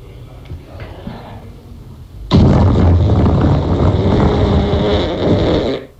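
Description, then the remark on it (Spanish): After a couple of seconds of quiet background noise, someone blows a loud, long raspberry imitating a fart, a harsh buzzing blast that lasts several seconds before cutting off. “haciendo el ruido del pedo.”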